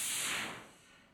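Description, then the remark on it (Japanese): A single short whoosh sound effect, a bright airy burst of noise that swells quickly and then fades out over about a second, heard alone with no talking. “なんかお聞きください、どうぞってなった時に、こうなんか出たりする、例えば、あのこの番組だとあのポッドキャスターの方をご紹介するときに、ポッドキャストの一部をお聞きくださいみたいなときにね、あの音出しますけど例えばこんな音出しますね。”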